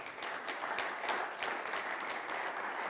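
A steady wash of applause from an audience in a church audience's hall, many hands clapping at once in a dense, crackling texture that holds at an even, moderate level for its whole length with no voices.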